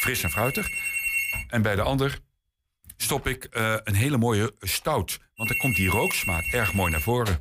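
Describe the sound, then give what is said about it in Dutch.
A telephone or doorbell rings in steady, repeating electronic tones beneath a man talking, sounding twice with a pause between, then the ringing stops. “Ja, sorry, dat is onze telefoon of onze deurbel.”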